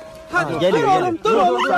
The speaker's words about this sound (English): This dog, its back legs trapped, freed by rescuers.